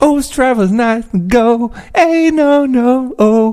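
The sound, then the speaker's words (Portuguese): A man sings a short, generic pop-style melody in a strong voice, with sustained notes and sliding pitches across several brief phrases, imitating a typical pop song. “E portanto, não, eu não consigo perceber a diferença entre aquela e todas as outras que eu acabei de ouvir, que soam mais ou menos assim.”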